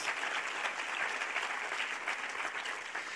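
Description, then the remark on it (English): A crowd claps steadily, a dense, continuous wash of many hands applauding at once, even in volume for a few seconds with no talking, giving a round of applause for a blessing of God. “Give a round of applause for a blessing of podemos God.”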